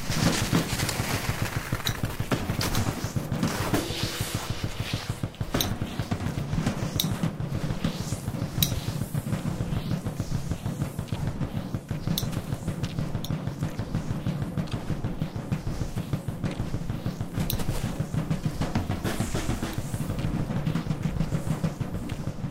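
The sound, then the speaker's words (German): Cross-country skis swish steadily through snow, layered with drum sounds: a dense, continuous scraping texture broken by sharp percussive hits scattered throughout, with no voices. “da hat man jetzt gehört, ich weiß nicht, ob man es direkt ähm, kapiert hat, das waren Schneegeräusche, auch Geräusche von ähm, Langlaufschieren, die so vorbei swischen, gepaart mit Schlagzeug-Sounds.”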